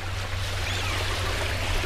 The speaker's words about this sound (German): Unser Bootsführer navigiert uns durch die von Brücken überwölbten Wasserstraßen.